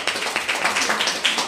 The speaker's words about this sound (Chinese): 那这边借掌声，谢谢这个呃。